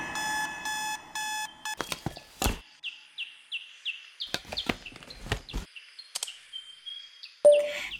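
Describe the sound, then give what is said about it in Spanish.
An alarm clock goes off with a loud electronic tone, then a rapid series of repeating high chirps broken up by sharp clicks and taps, with no voices. “Lidia, te suena la alarma.”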